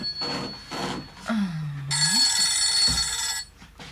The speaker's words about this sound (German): Oh, jetzt klingelt das Telefon.